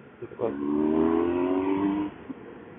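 A motorcycle engine revs up and accelerates for about two seconds while overtaking a car, its rising harmonic whine loud, then cuts off abruptly; faint road noise continues underneath.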